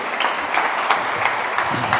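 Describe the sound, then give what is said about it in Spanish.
An audience applauds steadily to welcome a guest as she takes her seat, a dense wash of many hands clapping at an even level, with a few sharper individual claps standing out. No one speaks over it. “un aplauso por favor”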